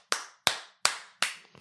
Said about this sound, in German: Da hat auch einfach nur so einer geklatscht.